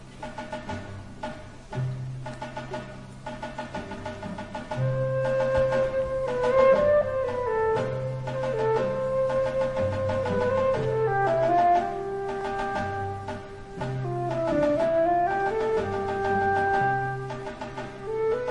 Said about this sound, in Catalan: estem escoltant com el famós Bolero de Ravel, creat pel famós compositor, lògicament, Maurice Ravel.